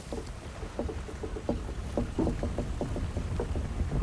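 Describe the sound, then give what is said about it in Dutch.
Water slaps and sloshes against a boat hull in quick, irregular little splashes over a steady low rumble, moderately loud, with no one speaking. “Ik hoor klotsen van het water rond de boot.”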